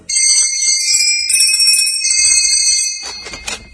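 The door bell of Santa's workshop at the North Pole rings loudly and continuously for about three seconds, its bright metallic tone sustained without a break, then cuts off into a short burst of clattery noise.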